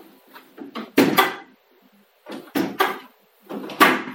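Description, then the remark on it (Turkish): A door is pushed shut, with three bursts of clunks and rattling thumps separated by brief pauses, fairly loud and with no talking. “Kapat ama iyi kapat kapıyı.”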